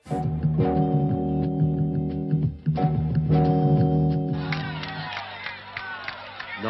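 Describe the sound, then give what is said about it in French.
A huge crowd in Luanda, Angola, welcomes MPLA leader Agostino Neto returning in triumph, roaring loudly throughout, a sustained mass of voices with tonal singing or chanting, a brief dip midway, then rising shouts and cheers toward the end. “Agostino Neto rentre en triomphateur à Luanda, avec une immense foule qui l'accueille.”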